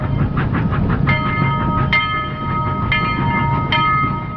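A train rolls steadily along the rails with a loud, continuous rumble, rhythmic wheel clatter and bright metallic squeals ringing out now and then.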